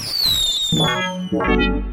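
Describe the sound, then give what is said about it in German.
A unicorn party popper goes off during New Year's Eve celebrations: a high whistling tone slides downward, then two loud crackling bursts follow, the second ringing out with a buzzy, rumbling tail. No one talks. “Darauf ein Einhornpopper.”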